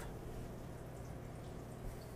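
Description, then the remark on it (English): Steady sizzling of hot oil in a pan, tested to show it is hot enough for frying: a dense, continuous crackle and scattered small pops, fairly quiet, with no voices. “Hear that crackle and pop? That's what you want to hear.”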